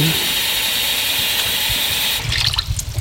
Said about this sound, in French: Là, je nettoie les champignons, je les lave. Je coupe le bout du pied pour enlever le sable et je le jette dans l'eau pour bien enlever le sable.